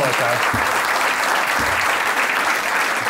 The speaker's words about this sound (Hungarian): Egy hatalmas tapsot szeretnék kérni …, ….